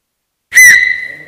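A single loud, shrill whistle blast begins abruptly after a short silence and holds steady, fading slightly as it continues, with no talking alongside it.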